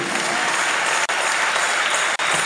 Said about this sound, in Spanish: Dale el aplauso a Jehová.